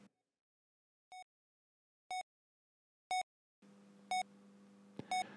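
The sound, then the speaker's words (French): Steady electronic beeps ring out about once per second, clear, like a patient monitor in a hospital room; after a few beeps a low hum and faint room noise rise beneath them. “les cinq colonnes convergèrent de nouveau et se retrouvèrent dans une chambre d'hôpital.”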